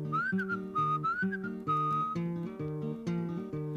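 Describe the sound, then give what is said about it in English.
Whistled imitation of a bird call, a few quick rising chirps repeated twice and then a longer held note, played over steady, moderately loud instrumental accompaniment with no talking. “and the cat went meow, and the bird went.”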